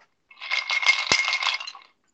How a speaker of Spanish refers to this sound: Ahí está el sonido de los hielos.